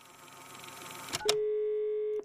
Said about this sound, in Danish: Så han tager telefonen og ringer til kommunen.